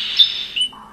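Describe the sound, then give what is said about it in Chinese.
A red-billed black bulbul calls: a short, harsh, high squawking note, then a second rising note that drops into a lower, fading tone, with no talking. “像这样，红嘴黑飞，”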